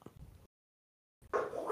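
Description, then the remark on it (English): After a brief faint rumble and a moment of silence, dogs let out a loud bark-like outburst with a whiny edge that fills the last half second. “My dogs agree. They they miss them too.”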